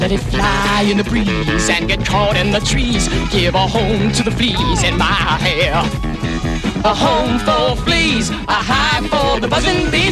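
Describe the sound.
A loud, upbeat show tune from a musical film plays throughout, with lead and group voices singing energetically over a full band of driving rhythm, brass and keyboards.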